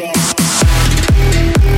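Loud, ringing metallic notes from a steel drum, struck about five times in a steady rhythm, each note bright and resonant with a quick pitch drop as it sustains.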